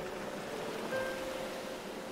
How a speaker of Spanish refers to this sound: Tengo los dedos torpes cuando trato de desabrochar la camisa y el mar como ruge.